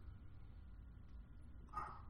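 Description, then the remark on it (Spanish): A single short, startled dog bark rings out near the end, muffled over a steady low background rumble. No one speaks. “El perro se asustó.”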